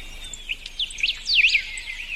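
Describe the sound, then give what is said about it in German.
Several small birds chirp and twitter in quick, high, sliding notes, with a steady hiss of outdoor ambience underneath and no voices; a birdsong sound played through an Echo smart speaker. “Da haben wir unser Vogelgezwitscher wieder.”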